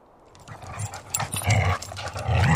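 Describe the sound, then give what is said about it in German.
A war dog snarls and growls aggressively, with harsh throaty bursts that grow louder and more intense over a few seconds. “Doch beide haben nicht mit der Aggressivität des Kriegshundes gerechnet”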